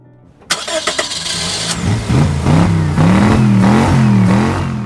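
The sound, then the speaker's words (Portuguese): A 466-horsepower V8 car engine cranks to life after a brief silence, then revs loudly and repeatedly, its pitch rising and falling in surges. It is powerful, with no voices. “traduzem em forma a potência no motor V8 de 466 cavalos vapor”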